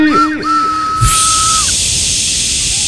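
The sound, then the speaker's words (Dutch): A conductor's departure whistle gives one steady, high-pitched blast lasting about a second, immediately joined and then replaced by a loud, continuous hiss that runs to the end. “Ik moet natuurlijk nog wel even fluiten.”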